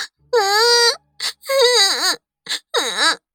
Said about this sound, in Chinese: 小丫头不过五六岁的样子，离开母亲后，哇的一声哭了起来。